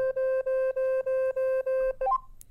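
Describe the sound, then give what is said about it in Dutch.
An Apple Watch speaker pulses a steady electronic tone six times in quick, even bursts, then finishes with a short rising chirp of notes, fairly loud with no talking. The speaker makes a frequency that pushes water out of the speaker opening, needed to unlock the watch after a swimming workout. “En als je hem weer wil unlocken, dan moet je eerst nog even het water uit de speaker ejecteren.”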